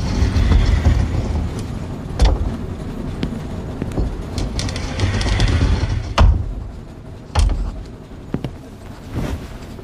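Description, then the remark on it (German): A steady low rumble from the last carriage of a train travelling from Le Havre through the French countryside on a six-hour journey, with sharp metallic clacks and rattles breaking through at irregular intervals as the wheels pass over rail joints. No voices. “In diesem Monster aus Eisen und modernster Technologie fährt Monet sechs Stunden lang durch die Natur Frankreichs.”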